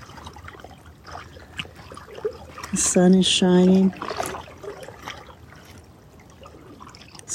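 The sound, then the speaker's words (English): Water of Lake Superior trickles and laps softly and steadily beside rocks on the shore, with a brief spoken phrase partway through and high wind adding a faint rush. “Greetings to you, coming to you from the shores of Kitchigami, this big inland sea, Lake Superior, and the beautiful lady is alive with sparkles today. Light dancing on water, water dancing with light.”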